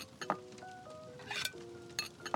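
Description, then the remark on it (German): Dishes and cutlery clink together as a table is set with glasses, cutlery and salad bowls: four or five sharp, bright knocks at irregular intervals, with thin ringing tones lingering between them. No voices are heard. “Und das Besteck. Okay. Mhm. Zack. Und noch die Schüsseln für den Salat.”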